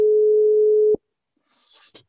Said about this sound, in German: Also die Leitung ist offen, hat aber noch nicht abgenommen. Hören ihr den Pieps?